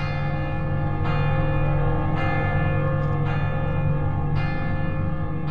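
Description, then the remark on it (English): Church bells of Viviers, Mondol, Carfontin and Baguirmorvan ring insistently in the distance in a steady, repeating pattern, with strikes roughly every second over a dense, sustained ringing hum, tolling for the outbreak of war in France in August 1914; no voices. “In the distance, we can hear the bells of Viviers, Mondol, Carfontin, and Baguirmorvan.”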